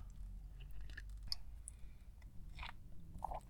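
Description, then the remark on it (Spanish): Someone sips coffee, with soft wet slurps, a swallow and small mouth clicks scattered over a steady low hum. Nobody speaks. “Pausa para trago de café.”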